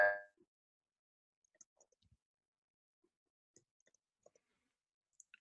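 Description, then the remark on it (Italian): A voice cuts off abruptly in the first instant, leaving several seconds of near silence broken only by sparse, faint digital clicks and ticks, like a call connection freezing and dropping out. “si è frisato …”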